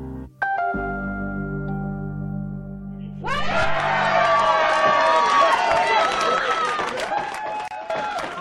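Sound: crowd cheering and celebrating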